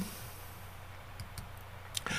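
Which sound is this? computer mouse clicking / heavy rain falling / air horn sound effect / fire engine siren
computer mouse clicking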